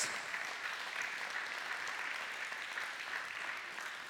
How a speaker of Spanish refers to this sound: ¿Cuántos dicen amén? Dele un aplauso a Cristo Jesús. Gloria a Dios.